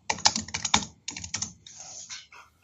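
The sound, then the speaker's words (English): Rapid clicking of keys on a computer keyboard as someone looks up statistics, a quick irregular burst of crisp keystrokes with a brief pause midway, then softer clattering trailing off. No one speaks. “Someone's typing.”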